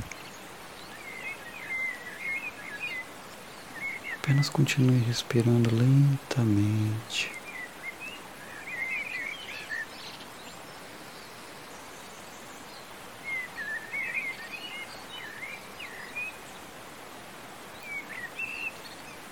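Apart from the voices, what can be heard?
birds singing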